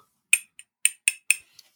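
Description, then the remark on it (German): Glass clinked as a makeshift bell, rung because both speakers gave the same rating: about six quick, bright taps, each a short high ring that fades fast, the last one softer. No voices. “Bei mir sind sieben Punkte und ich kann mir vorstellen, dass wir beide wieder klingeln können, dass wir die, äh, die, dieselbe Ver äh, äh, Bewertung abgeben.”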